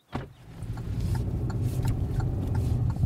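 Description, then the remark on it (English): A car engine hums low and steady as the vehicle drives up a mountain road at about 7000 feet of elevation, among oaks, cactus and pine trees, with a brief knock at the start and faint rattles and ticks over the continuous road rumble; no one speaks. “back in the car we head up the mountain again at about 7000 feet of elevation the oaks and cactus give way to pine trees”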